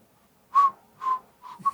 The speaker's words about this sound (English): I kind of just whistled it into my phone as light as possible and went back to bed and listened to it the next morning. And it was like, what the, the fuck is this? This is, it's just absolute, it's absolutely nothing.